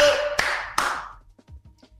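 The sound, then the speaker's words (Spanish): A short burst of applause with two sharp, loud claps standing out, fading away after about a second and leaving only faint low murmuring sounds. “aplauso!”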